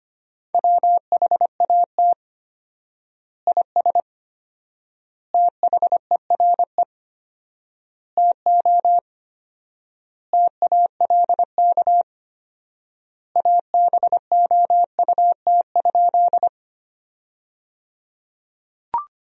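Rapid Morse code beeps at 25 words per minute in a single steady mid-pitched tone, keyed in quick dots and dashes forming sentences of common words, with fourfold word spacing giving long silent pauses between words, clear with no talking.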